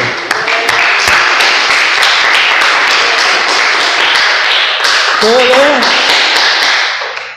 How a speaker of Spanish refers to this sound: Dile el aplauso.